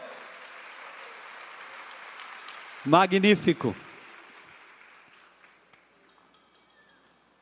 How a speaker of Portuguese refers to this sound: Aplaudam o Senhor.